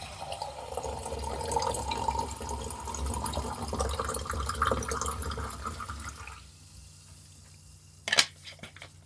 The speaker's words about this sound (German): Ich habe ein paar Sprudelwasser, das werde ich mir einschenken.